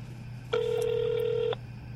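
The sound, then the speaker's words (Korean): A single steady electronic telephone ring tone sounds for about one second as a phone call is being connected, clear and fairly loud, over a faint low background hum, with no voices. “제가 직접 연결을 해서 좀더 네. 구체적으로 좀 얘기를 좀 들어보려고 합니다.”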